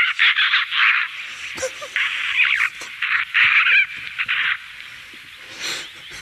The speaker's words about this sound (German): Der Gesang, ich habe tatsächlich gestern hier in Berlin eine Elster singen hören und zwar, ich fand es sehr schön. Ja. Ich habe den Gesang auch mitgebracht. Ja, hören wir mal rein.